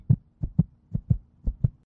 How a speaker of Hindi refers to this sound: मैं मैं मैं डर रहा था दिल की धड़कन तेज हो रही थी